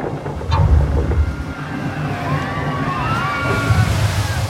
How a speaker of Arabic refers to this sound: وازداد البحر هيجانا القارب يتخبط وسط الامواج العاليه